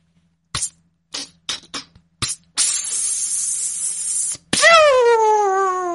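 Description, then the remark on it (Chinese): A voice mimics a whistling rocket firecracker, a cuantianhou ("sky-climbing monkey") rocket: several short puffs and clicks, then a long rushing hiss, and finally a loud pop followed by a descending whistle that slides downward in pitch. “你这是窜天猴啊，还是礼炮呀？ 窜天猴，对，窜天猴。”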